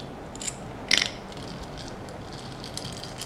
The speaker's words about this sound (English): The soundscapes range from tracks mimicking the gentle rhythm of searching through piles of bricks to a lazy evening building.